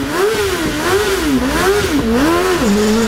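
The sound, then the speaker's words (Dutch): The Honda Mean Mower, a record-setting high-speed racing lawnmower that sprints from 0 to 160 km/h in 6.2 seconds, revs loudly and continuously, its engine pitch rising and falling in repeated surges as the throttle opens and eases off, with no voices. “In het nieuws vandaag de snelste grasmaaier ter wereld.”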